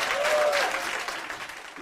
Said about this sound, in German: Das ja, das gibt einen Applaus auf jeden Fall.